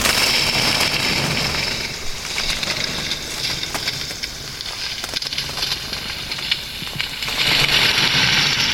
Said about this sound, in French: Alors c'est une, euh, une grue, comme j'ai dit, euh, rafterin. Alors c'est une grue pour euh, aller dans, les chantiers, une grue qu'il ne faut pas avoir une piste qui est tout droite, alors euh, je peux monter, je peux descendre.